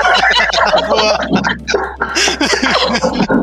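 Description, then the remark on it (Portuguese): A person mimics a rooster's crow with strained, warbling vocal sounds, loud, over a few seconds with rising and falling pitch. “É assassino, o galo né? do tempo dela cantava às 5 da manhã, né?”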